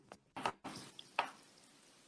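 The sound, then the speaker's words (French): Earphones being handled, put on and plugged in: rustling and scraping against the microphone, broken by two sharp little plastic clicks about a second apart, with no one talking. “Je suis en train de mettre les écouteurs, on va voir si ça, si ça va aller mieux, parce que c'est vrai que le résiment est compliqué.”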